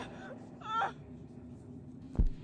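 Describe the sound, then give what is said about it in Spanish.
A short, wavering, eerie moan like whispers or laments drifts up softly over a low ambient hum on a clear night, followed a moment later by a single dull low thud. No speech is heard. “Sin embargo, lo más sorprendente estaba aún por llegar comenzaron a escuchar junto a ellos una especie de susurros o lamentos.”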